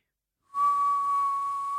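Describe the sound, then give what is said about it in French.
Someone whistles a single steady, piercing high note, imitating the shrill whistle a household appliance suddenly starts making. It begins abruptly after a brief silence and holds unbroken and loud, with a faint breathy hiss. “c'est qu'au bout d'un moment il siffle. Il se met à siffler”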